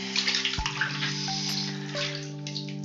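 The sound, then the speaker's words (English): Continuous water sloshing and splashing in a bathtub as a person rubs their muscles down, a soft churning wash over a steady low hum, with no voices. “I just am rubbing my my muscles down because it feels so good in the water.”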